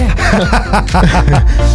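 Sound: person yawning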